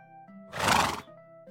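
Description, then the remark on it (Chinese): A blue horse whinnies once, a loud, rough neigh lasting about half a second, set against soft, steady background music that continues before and after it. “我看到一只蓝色的马在看我。”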